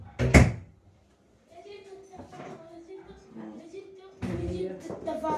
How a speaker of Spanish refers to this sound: Sí, pero cuando salen pueden cerrar la puerta.